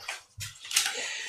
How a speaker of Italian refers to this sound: Poi appunto c'è il rumore dell'acqua, è molto distensivo, quindi vi addormentate bene.